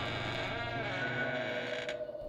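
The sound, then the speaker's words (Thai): A door is unlocked with a key and its knob turned, then the door swings open with a long, drawn-out creak of the hinges, followed by a brief click near the end. “ทันทีที่ความคิดในหัวจบลงลูกบิดประตู ก็ถูกไขกุญแจปลดล็อกออกพร้อมกับเสียงบิดลูกบิด ประตูถูกเปิดออก”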